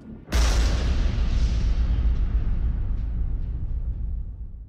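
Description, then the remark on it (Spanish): A sudden, violent mid-air collision explosion as a B-52 bomber carrying four nuclear bombs collides with a tanker aircraft, a sharp blast, then a deep, roaring rumble that slowly fades over several seconds. No voices. “El B-52 cabecea bruscamente y colisiona con el avión cisterna, generando una violenta explosión.”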